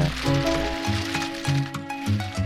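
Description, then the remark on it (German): Regional walnuts clatter as they are poured from crates into a basket, a dense, continuous rattle of many small hard knocks over a steady low hum, at moderate volume. “Und wenn man das so umschüttet, das klackert halt so schön.”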